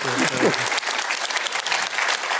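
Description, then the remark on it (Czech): Sustained applause from an audience clapping for their own regional governor, Jan Grolich, hejtman of the Moravian region. A dense, steady patter of many hands clapping continues throughout, with a brief voice-like tone at the start mixed under the clapping. “Plně tleskají vlastnímu hejtmanovi.”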